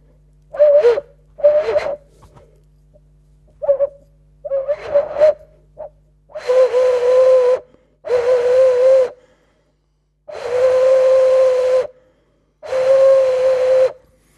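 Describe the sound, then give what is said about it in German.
A resonator about the size of a large hen's egg, blown by mouth, gives a breathy, hollow whistling tone at a steady mid pitch: several short toots first, then four longer, loud sustained blows with rushing air noise, separated by brief pauses. “Ja, Sie also könnten diesen Resonator jetzt auch anders anregen.”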